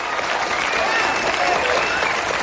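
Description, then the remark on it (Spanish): A crowd at a marketing meeting in an office in Los Angeles applauds Jack steadily, many hands clapping in a dense, continuous patter that holds at an even, fairly loud level for the whole stretch, with no pause or build. “Un aplauso para Jack, amigos.”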